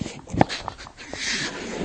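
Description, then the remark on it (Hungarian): A drug-sniffing dog whimpers inside a car with all its doors shut, in a few short, high whines, the first one sharpest, with soft muffled shuffling and rustling in between, in a quiet space. “és akkor utána bemegy az autóba a kábítószeres kutya, és rácsukják az összes ajtót.”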